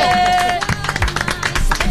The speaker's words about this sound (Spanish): ¡Un aplauso!